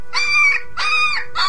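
A stray dog, being shooed away, gives three drawn-out, high-pitched yelping barks in a steady rhythm, each tonal and whiny, the last one cut off; no voices are heard.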